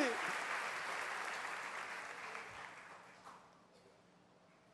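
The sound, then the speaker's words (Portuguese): A church audience at an evening service applauds Jesus: dense, steady clapping fills the whole clip, gradually thinning and fading toward the end. “Aplauda Jesus, diga glória a Deus, a graça está disponível para mim nessa noite.”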